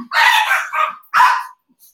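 Dogs that have just arrived bark loudly in three quick bursts, the first long and drawn out, then a short yap and one more sharp bark after a brief pause.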